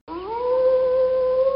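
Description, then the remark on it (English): A single sustained wolf howl, played by a Mac timer app as its alarm when the timer runs out, rises at the start and holds a steady, clear tone, loud, with no talking. “It's fun because when the timer runs out, instead of a boring ding or chime, you hear a wolf howl.”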